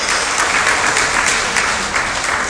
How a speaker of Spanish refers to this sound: Panamá ese no es el aplauso que te mereces cuando te estamos hablando de tus sueños.